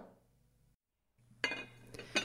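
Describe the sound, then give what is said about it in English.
Two sharp clinks of a glass Pyrex dish holding ugali stew being set down or knocked as it is put into the oven, moderately loud, following a short silence with a faint low hum underneath. “She puts it in the glass Pyrex dish and into the oven, ready for Ma to eat when she wakes up for her night shift.”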